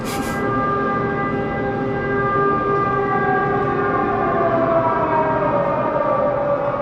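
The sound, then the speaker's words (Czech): An air raid siren in the centre of Lviv, western Ukraine, heard outside the windows of a hostel, wails steadily and loudly. Its layered tones hold a sustained chord that slowly slides downward toward the end, with no voices. “Sotva dosednu na postel v jednom z hostelů v centru města, rozezní se letecký poplach.”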